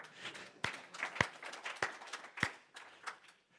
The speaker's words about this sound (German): Ihr seid wirklich ein ganz ein tolles Lobpreisteam. Amen. Jetzt könnt ihr auch nochmal klatschen.